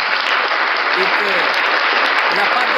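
A church audience applauds an evangelist missionary steadily for a few seconds, a dense wash of many hands clapping at an even, fairly loud level with no pauses.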